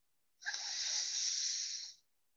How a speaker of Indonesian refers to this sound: Kita tekan hidung kanan dengan jempol kanan. Lalu kita inhale dari hidung kiri